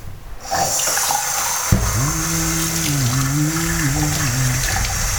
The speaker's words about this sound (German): Jetzt heißt es Tasse ausspülen, das Gerät wieder ab machen.